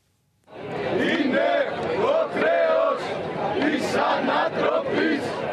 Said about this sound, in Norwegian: Mens Europas ledere strides i Brussel, er noen hundre greske demonstranter samlet på Syntagmaplassen i sentrum av den greske hovedstaden.